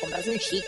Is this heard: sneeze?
no